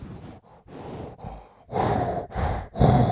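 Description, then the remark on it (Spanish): A voice imitates scuba breathing through a regulator, as heard while diving with an oxygen tank: a series of hissing, rasping inhales and exhales in a steady rhythm, growing louder toward the end, with no speech. “Y algo que pasa, es gracioso porque vos estás ahí con el oxígeno y escuchas el”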